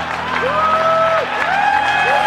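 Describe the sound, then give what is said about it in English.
A loud crowd at a tech reveal cheers over a steady wash of noise, with several rising and falling whoops and whistles cutting through the roar. “I mean, sure, the crowds are livelier.”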